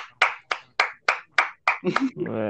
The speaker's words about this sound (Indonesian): Mari kita tepuk tangan untuk yang sudah nikah.